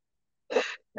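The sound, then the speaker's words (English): A single abrupt, breathy sneeze bursts out after a moment of silence, followed shortly by the start of another short burst of breath. “It's been dealt with, bless you.”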